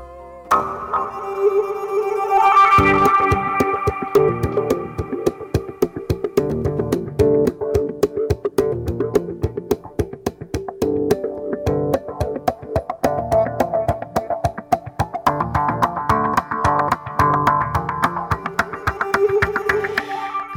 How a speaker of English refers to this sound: Do you think you're listening to the cello? Well, you are listening to the cello. It's the electric cello music